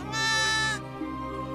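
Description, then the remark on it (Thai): A single lamb grazing on grass bleats once, a loud, wavering, nasal cry lasting most of a second, then trails off into a softer tail with quiet background. “มันได้มองแล้วก็จ้องลูกแกะ ซึ่งกำลังเล็มหญ้าอยู่อย่างไม่รู้ตัว”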